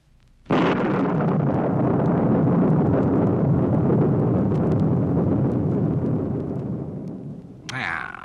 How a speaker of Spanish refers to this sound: En el cielo brilló una espada de luz y estalló un trueno.